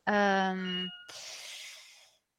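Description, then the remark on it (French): A phone message notification sounds: a steady, buzzy tone lasting about a second, followed by a brief breathy hiss after a short pause. “ah, c'est David qui m'envoie un message.”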